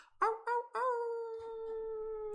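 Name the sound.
people imitating wolf howls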